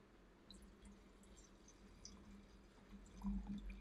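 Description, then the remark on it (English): Wine trickles and splashes into a glass in a quiet pour, with faint drips and a brief gurgling swell near the end. No one speaks. “I think I need another glass because, hello, you know I be talking facts. Let's pour it up another glass.”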